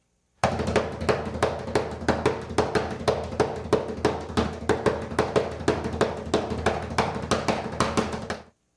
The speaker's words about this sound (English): And uh, finally, here is drumming knock number three.